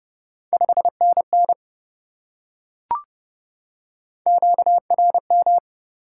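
A steady mid-pitched Morse code tone keys out two quick bursts of dots and dashes at 30 words per minute, sending QSO elements, separated by a silent gap broken only by a single soft click.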